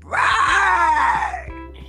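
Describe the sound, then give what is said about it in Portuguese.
A single drawn-out, strained yell from a man's voice, loud, sliding downward in pitch over about a second and a half, a person imitating a man screaming outside. “a gritar cá fora é que ele fazia literalmente”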